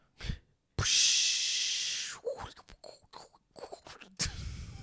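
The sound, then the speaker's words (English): A voice imitates diving into water and swimming: a short puff, then a long hissing splash, followed by a run of bubbly mouth clicks and pops and a final breathy hiss, fairly loud. “how do you make a water noise for like a dive?”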